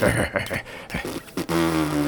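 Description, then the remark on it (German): A drawn-out, buzzy fart in a pub, fairly loud, lasting under a second after a stretch of rustling, clattering background noise. “Ach, wenn du hier schon rumpupsen musst, dann mach das wesens leise.”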